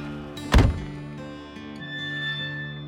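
A single heavy, muffled car door thunk, brief and loud, as a passenger jumps out at a locked gate on a dirt road about 20 minutes outside of town, followed by a low steady engine idle hum that continues underneath. No one speaks.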